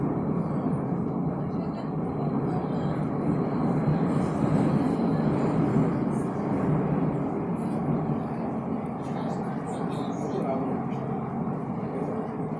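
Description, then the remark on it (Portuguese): A São Paulo metro Line 4 Yellow train, running from Luz station toward Butantã station, rides between stations: a steady, loud rumbling roar fills the carriage with little change, while muffled voices blend faintly into the din. “Linha 4 amarela de metrô, São Paulo.”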